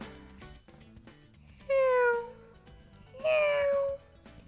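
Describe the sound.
A person imitates a cat with two drawn-out, drowsy meows, each sliding downward in pitch, separated by a short pause over faint background noise.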